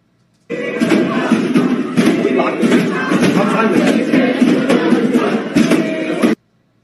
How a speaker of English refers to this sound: Listen to them banging on the door. A Velociraptor trying to get in from Jurassic Park, folks. That's a mob. That's a mob.